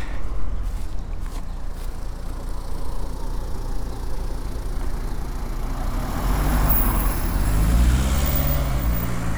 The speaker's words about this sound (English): judging by the traffic on the main road. Don't think it's going to be any quieter.